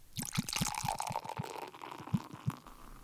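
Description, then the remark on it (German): Water pours into a glass with a bright, splashy gurgle and a rising tone as it fills, punctuated by quick glugging pulses, fairly loud, no voices. “Oder das Glas”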